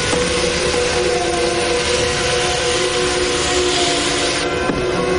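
A train grinds to a full stop at a platform in the dark, a steady loud rumble and hiss laced with thin, sustained squealing tones, then a short clunk just before the end. No one speaks.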